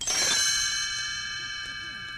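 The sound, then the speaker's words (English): A bright cluster of tiny bells, Tinker Bell's page-turn chime on a read-along record of The Haunted Mansion, rings out at once, then lingers in a shimmering, high-pitched sustain that slowly fades. The chime is clear, with no voices. “You will know it is time to turn the page when Tinker Bell rings her little bells like this.”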